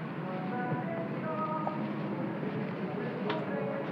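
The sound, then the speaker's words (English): Steady indoor ambience of an empty shopping mall: a constant wash of ventilation hum with faint murmurs and a brief soft clatter near the end, no one speaking. “Do you hear that? That's the sound of a mall.”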